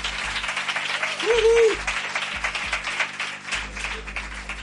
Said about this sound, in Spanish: Así que pido un fuerte aplauso, por favor,